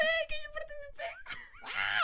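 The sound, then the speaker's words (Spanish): A person screams in loud, high-pitched bursts, starting with a sustained wailing tone and ending in a harsh, strained shriek, with no talking around it. “pues básicamente, básicamente, ah, por toda la gente que nos ha enterado, eso he sido yo a gritar,”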